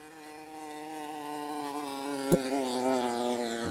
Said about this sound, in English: buzzing noise, uh, a stuttering kind of rhythmic Sounded like it was meant to sound like a bee. Um, it, uh, almost sounded like it was like a like a really old scooter. Do you know what I mean? Or, or a scrambler that was like uh, old and battered